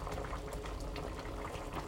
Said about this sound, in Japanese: めっちゃクツクツ言ってるわ、鍋。今ね、鍋作ってるんですよね。